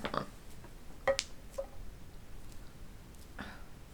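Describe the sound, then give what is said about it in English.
A few sharp finger knuckle cracks pop at irregular moments, one louder snap among quieter clicks, against an otherwise hushed, faintly noisy background. “what story time isn't complete with some great knuckle cracking ASMR”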